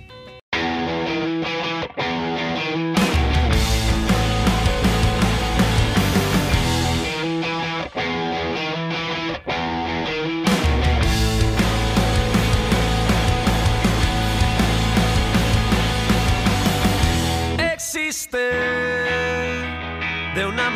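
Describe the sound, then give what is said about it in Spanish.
An indie rock song by a guitar-and-drums duo formed in 2015, made in collaboration with a band from Zaragoza, plays loud and steady, with distorted electric guitar over a driving drum beat, breaking briefly in a few spots before surging back in. No vocals stand out. “con un dúo de indie rock, guitarra y batería”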